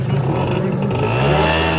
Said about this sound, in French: voilà, rouler sur le trottoir en moto alors qu'il y a un groupe de piétons. Bon, voilà. Voilà, voilà l'exemple type de ce qu'il ne faut pas faire